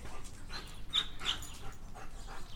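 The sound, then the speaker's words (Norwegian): A female dog pants in quick, breathy bursts with a few thin, high whimpers mixed in, fairly soft and steady throughout with no talking. “Vanligvis hadde hun gått og tatt seg en uh, slurk med vann sånn innimellom hver hils.”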